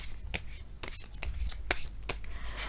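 Tarot cards being shuffled for a career reading for Taurus, a run of crisp papery flicks and slaps arriving at an irregular pace over a low steady hum, with no one speaking.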